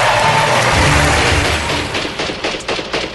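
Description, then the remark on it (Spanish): Gunfire from the civil war in Yugoslavia: a loud rattle, with rapid bursts of shots crackling over a dense, rumbling wash of noise. The sharp reports grow more distinct toward the end, and no voices are heard. “Un repicar de balas, un sonoro aplauso de la muerte.”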